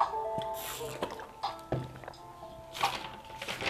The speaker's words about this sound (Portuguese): Bebi uma água aqui.